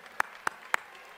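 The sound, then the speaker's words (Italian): Three sharp, evenly spaced handclaps ring out in quick succession over a quiet background at a political gathering in Pontida, sounding like the scattered start of applause rather than a full crowd ovation. “veramente grazie di cuore, un applauso meritatissimo a tutti, grazie.”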